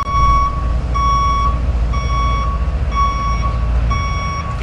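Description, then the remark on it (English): A vehicle's reversing alarm beeps steadily, five loud, evenly spaced electronic tones over the low rumble of an idling engine, with no talking. “That, that, that's just Kim Kardashian backing up.”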